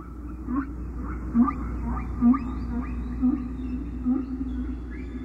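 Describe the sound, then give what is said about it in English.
Recorded whale song: a series of eerie, rising tonal cries repeating roughly every second, sweeping upward over a steady low underwater rumble, with no voices. “You know, if we could get humanity to hear these sounds, we could get them interested in whales, probably enough to do something about it.”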